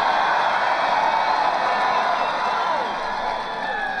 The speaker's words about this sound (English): You can hear how big these crowds are. And by the way, you know, in all fairness to Erie, all over the country, makes you feel good, all over the country.